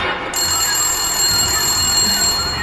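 telephone ringing

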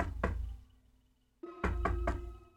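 knocking on a door

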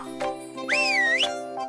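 whistle

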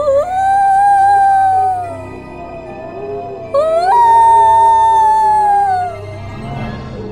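wolf pack howling

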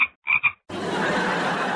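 toad croaking

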